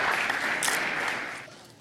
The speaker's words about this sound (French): Les députés, qui ont applaudi. C'était-tu de la dérision? Ah non, non, ça applaudissait poliment comme...